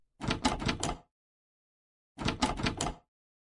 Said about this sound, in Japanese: 思い切ってドアノブを押した。